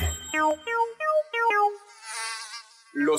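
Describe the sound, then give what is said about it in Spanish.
A whiny, high-pitched mosquito buzz rises and falls in short wavering bursts, then drifts into a thinner, hissy drone before one last buzz returns. Fairly loud, with no one speaking. “únicos mosquitos que pican son las hembras y solo lo hacen una vez en su vida con el fin de obtener proteína para producir sus huevos.”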